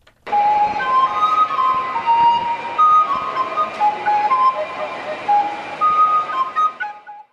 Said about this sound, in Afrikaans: A fluitspeler loop in die winkelsentrum rond en vermaak die feesgangers.